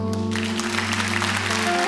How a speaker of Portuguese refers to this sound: Vocês podem aplaudir o Senhor?